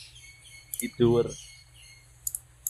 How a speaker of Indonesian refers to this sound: Iya kedengeran burungnya. Tapi gak apa-apa. Jadi asik.